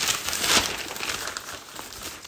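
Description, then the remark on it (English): Papery crinkling and rustling as someone turns and handles newspaper pages, with a louder crumple near the start, and no talking. “Um, you can hear me actually turning the pages.”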